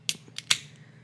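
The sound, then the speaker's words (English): A bottle of unfiltered, unpasteurized beer from Framingham, Massachusetts being opened: three quick, sharp metallic clicks as the cap is pried off, the last one loudest, over a low steady hum with no talking. “unfiltered, unpasteurized. So don't drink it if you're pregnant. it's beer. nice. It's delicious. Yeah, nice. open her up.”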